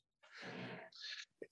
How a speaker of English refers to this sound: So, Excuse me. Yeah, bless you.